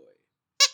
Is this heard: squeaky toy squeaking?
yes